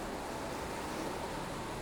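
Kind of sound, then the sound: nature, stormy ocean waves crashing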